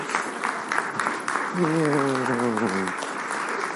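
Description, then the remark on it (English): Steady applause from a crowd fills the whole stretch, a dense continuous patter of many hands, while a man's voice speaks briefly over it partway through. “Keep on clapping.”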